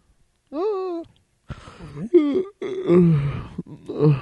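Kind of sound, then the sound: human body sound, yawn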